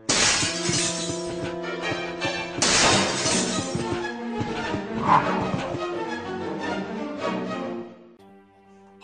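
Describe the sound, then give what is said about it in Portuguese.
In a video game scene set in a mansion, a dog crashes through a glass window: two loud bursts of shattering glass over a sustained, droning tonal background that thins out and quiets near the end. No one speaks. “Tira a primeira pedra quem não se cagou todo na cena do é. cachorro quebrando a janela, né, velho?”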